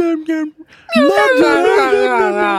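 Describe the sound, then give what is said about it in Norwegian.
At a parking lot where a sled dog team was, a dog gives a few short whines, then breaks into a long, wavering howl whose rising and falling pitch sounds almost like speech, loud. “og så en hund som kunne snakke.”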